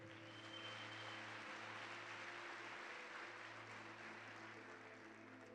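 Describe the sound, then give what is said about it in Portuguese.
Sustained applause from a large crowd giving a round of applause to the King, a dense steady wash of clapping at constant loudness, with a low electronic hum underneath and no one speaking. “Dê uma salva de palmas ao Rei.”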